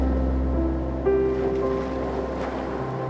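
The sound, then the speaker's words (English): A steady, continuous wash of ocean waves with a low rumbling undertone, blended with soft sustained tones, even and unbroken throughout with no voices. “The sleepy ocean calls you tonight”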